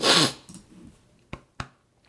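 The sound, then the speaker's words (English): A loud, breathy rush of air, like a sneeze building up, fades away without the sneeze coming. Two short, sharp intakes of breath follow, clear, with no talking. “I thought I was going to sneeze then. I was convinced.”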